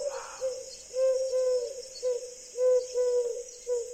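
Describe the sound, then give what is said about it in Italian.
A pigeon, just given a letter to carry, coos softly in a series of short, rounded, throaty notes that swell and fade in an uneven rhythm, with a steady high insect-like drone humming in the background. “Teomondo, mio fedele piccione, questa è la lettera. Vola, Teomondo, vola.”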